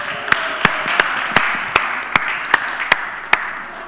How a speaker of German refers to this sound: Applaus, Applaus.